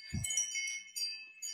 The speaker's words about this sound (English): No, there's a chime on one of my doors